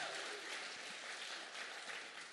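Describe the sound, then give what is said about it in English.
An audience claps steadily for a father being acknowledged in the room, a dense, even wash of many hands that holds at a fairly loud level for a couple of seconds, with no voices standing out. “Come on, somebody clap for my dad.”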